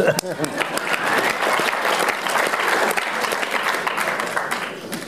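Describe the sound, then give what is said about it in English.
A steady burst of audience applause, many hands clapping in a dense, continuous patter that stays fairly loud for about five seconds, with faint voices mixed in near the start. “Little applause.”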